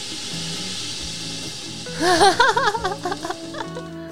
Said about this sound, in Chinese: 哇，好舒服哦！海浪的声音，